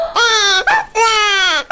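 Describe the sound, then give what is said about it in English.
A baby, woken by a dog's bark, cries in two loud, high-pitched wailing bursts, each sustained and slightly falling in pitch, separated by a short catch of breath. “baby 被吵醒了，他就怎么样？哇哇大哭！哇，the baby is crying！”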